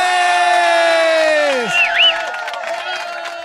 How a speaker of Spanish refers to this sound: Gracias por ese inmerecido aplauso, pero lo tomo porque es viernes y uno necesita motivarse.